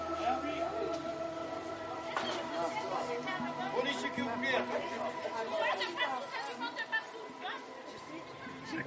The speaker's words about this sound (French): Bah écoute, je suis ravi de venir chez toi, de découvrir Agde. Alors, euh, tu m'as donné rendez-vous en plein milieu du marché, un marché qui a l'air euh, immense, avec plein de bons produits